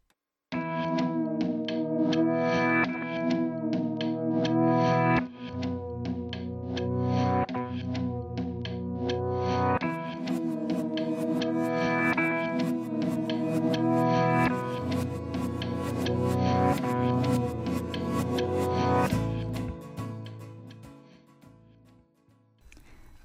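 An indie rock song plays loud and full, with layered guitar tones and steady drums that thicken partway through, driving on evenly before thinning out and fading in the final few seconds.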